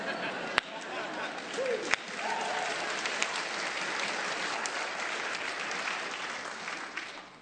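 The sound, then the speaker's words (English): A golf clap from about three people carries on for several seconds at an even level, a patter of hands with a couple of sharper claps standing out near the start. “Uh, there's like three people. Golf clap.”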